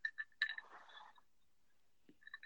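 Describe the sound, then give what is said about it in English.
An ice cube clinks against the inside of a drinking glass: a quick cluster of light, ringing taps, a quiet pause, then a few more soft clinks. “It sounds like a big old ice cube just floating around in that glass.”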